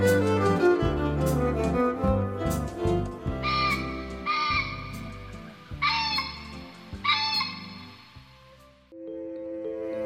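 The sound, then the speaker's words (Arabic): A bird on the mountain calls out four times in the quiet of early morning, in a steady sequence, each cry drawn out and clear, over a soft, continuous musical background. “وصياح طائر من عند الجبل قد شق هدوء الصباح الباكر”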